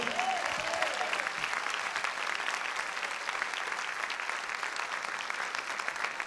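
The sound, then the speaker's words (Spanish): An audience applauds the Lord with steady, dense clapping that holds for several seconds at an even loudness, a few brief vocal sounds rising over the start. “Si lo cree, denle un fuerte aplauso al Señor.”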